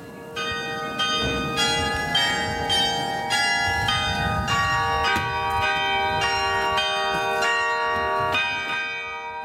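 Several church bells ring together in a full, overlapping peal, strikes landing in an irregular rhythm with long sustained tones humming beneath, loud and steady throughout with no voices.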